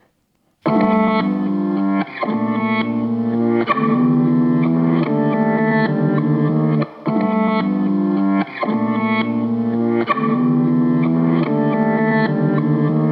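The instrumental intro of a rap track plays loud on the radio station Radio Campus Angers: thick, distorted synth chords cycle through a repeating progression, with no vocals yet.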